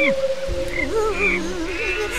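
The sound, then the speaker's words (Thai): Heavy rain hisses continuously across the whole clip, a dense wash of noise, with wavering tonal sounds rising and falling on top of it. “ตกหนักลิงกับคางคกได้หลบฝนอยู่ใต้ต้นไม้”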